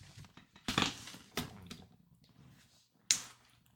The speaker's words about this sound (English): chair is so loud. it is loud.